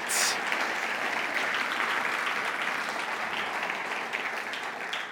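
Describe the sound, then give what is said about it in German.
Sustained applause from a church audience for the worship team, a dense, steady wash of many hands clapping at an even loudness for the whole clip, with no voices standing out. “Hey, die Worship haben mal einen gewaltigen Applaus verdient.”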